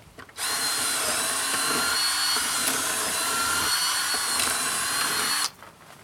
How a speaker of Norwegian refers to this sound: Ta fram drillen. Hvis du har en gammel stubbe eller en gjerdestolpe.